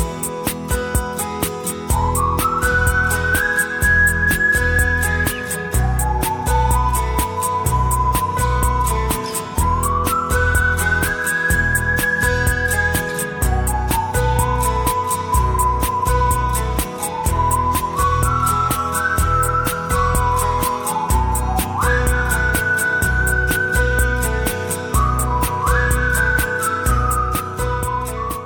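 A whistled melody rises and glides in repeating phrases above a dense electronic backing with a steady, pulsing beat. The whistling stays clear and prominent throughout, with no talking.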